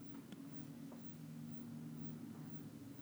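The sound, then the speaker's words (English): A loud airplane flies overhead, a low engine hum layered with a broad, airy roar that slowly builds and fills the whole stretch without letting up. No one speaks. “It's so loud and slowly building.”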